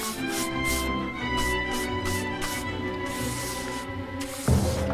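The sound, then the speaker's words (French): A paintbrush sweeps across canvas as someone paints, in a series of quick swishing strokes, each a brief airy rasp, layered over a steady background of sustained tones. “Quand elle peint, son œil pétille d'intelligence, son pinceau court sur la toile.”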